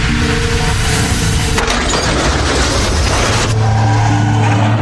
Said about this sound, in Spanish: En este punto se fracturó el cuello, luego de chocar con el carro.